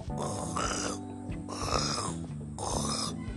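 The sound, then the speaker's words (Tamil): A voice imitates a fox burping after eating a rabbit and then snoring as it sleeps, in three drawn-out, rhythmic rasping bursts, fairly loud, with a low steady musical drone running underneath. “உள்ளே போன உடனே முயலை சாப்பிட்டு முடிச்சிருச்சு வயிறு முட்டை சாப்பிட்டதுக்கப்புறம் இப்படி ஏப்பமெல்லாம் விட்டுட்டு நல்லா”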